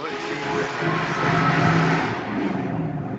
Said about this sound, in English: Was that was a loud car. That was a loud car.